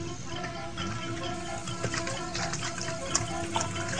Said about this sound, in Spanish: También trajo una taza o lata pequeña, la llenó en la cacerola y me la dio.